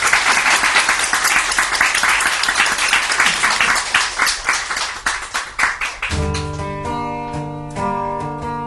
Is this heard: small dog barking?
no